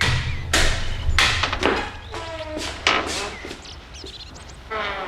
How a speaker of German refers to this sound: Neben einer unscheinbaren Tür war ein Schild in die Hauswand eingelassen, auf dem stand Buddhistisches Zentrum Rocky Beach. Justus betätigte den Türklopfer.